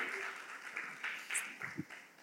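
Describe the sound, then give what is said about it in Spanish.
An audience claps steadily, a dense, even patter of many hands sustained at moderate loudness for a couple of seconds, with a few brief low vocal shouts mixed in near the end. “Un aplauso, un aplauso.”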